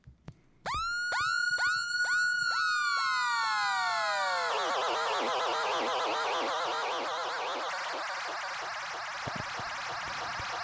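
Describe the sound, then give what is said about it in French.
A synthesized dub siren fires in rapid, repeating rising sweeps, then the tape echo takes over, smearing the tones into a dense, swirling wash of repeats that slowly trails off. No one speaks. “tu peux nous faire écouter ce que ça donne, le tape echo par exemple”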